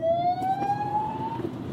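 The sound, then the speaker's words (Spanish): A Guardia Civil police car with its lights on sounds its siren, wailing over steady road and engine rumble, its tone gliding slowly upward as the car approaches and passes, loud, with no one speaking. “Venía un coche de la Guardia Civil con las luces, estaba oyendo la sirena, no sabía por dónde venía, no sabía tampoco si era un policía, ambulancia, algo ha debido de pasar porque viene otro detrás.”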